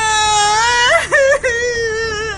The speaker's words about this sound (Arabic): من هو اللي مات ليش تبكي ما مات حد